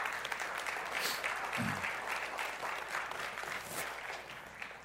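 Steady, dense applause from an audience welcoming a woman coming on stage fills the space, a continuous wash of clapping that holds at an even level throughout before easing slightly near the end.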